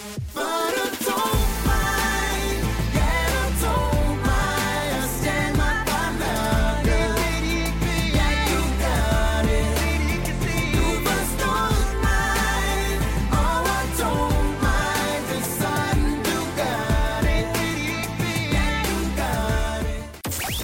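A pop song plays loudly and continuously for about twenty seconds, with a full band, steady driving beat and layered melodic instruments filling the mix from start to finish.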